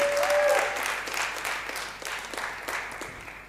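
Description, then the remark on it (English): A church audience applauding the worship team steadily, a dense wash of clapping that starts strong and gradually thins out, with a brief faint tone near the start and some voices mixed in. “Come on, give them a hand.”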